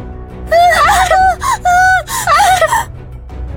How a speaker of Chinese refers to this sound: 伴随着女生的尖叫。